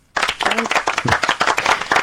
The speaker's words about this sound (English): And would you like a round of applause? I would love a round of applause. Here it is.